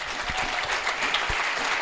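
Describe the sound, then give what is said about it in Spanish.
A crowd applauds a couple, steady dense overlapping claps forming a continuous, fairly loud wash of sound with no one speaking over it. “Una pareja extraordinaria que impido un aplauso por ellos, por favor.”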